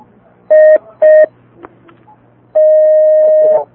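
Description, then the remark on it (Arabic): As another phone call is taken on a call-in show, two short electronic telephone tones sound in quick succession, then a pause with faint background noise, followed by a longer, steady ringback-style tone lasting about a second, clear. “حياك الله يا أخي الكريم أهلا وسهلا بك نأخذ اتصال آخر”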